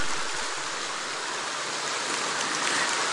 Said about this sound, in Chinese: 让我们再次以最热烈的掌声，感恩大慈大悲的观世音菩萨，感恩大慈大悲的卢军红台长。